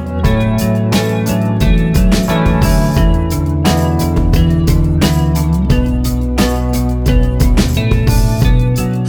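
A rock song from an upcoming album plays loud, with a full band of guitars, bass and steady drum hits driving a mid-tempo groove. No one talks over the music.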